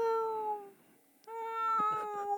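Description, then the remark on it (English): A person mimics a cat's meow with two drawn-out, steady tonal calls separated by a brief pause; the second call is joined by breathy, choppy bursts. Fairly loud. “I would try my cat right now, but um. Do it. Meow.”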